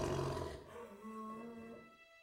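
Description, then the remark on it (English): Several loud roars overlap into a rumbling chorus, starting strong and fading as sustained tonal growls trail off over a couple of seconds. “but she stands and, and uh, joins you yeah. with a chorus of attention grabbing uh, roars”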